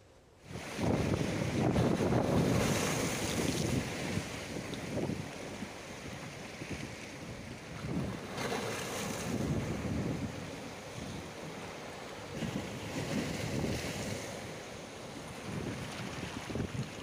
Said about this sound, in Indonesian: Ya pemirsa, inilah kondisi gelombang pasang Laut Jawa yang menghantam tempat wisata Pantai Morosari, Desa Bedono, Kecamatan Sayung, Demak, Jawa Tengah.